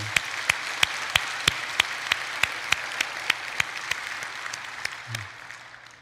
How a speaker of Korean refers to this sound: 우리 하나님께 감사 그리고 또 그분들께 감사하는 박수 올려드리길 기 원합니다.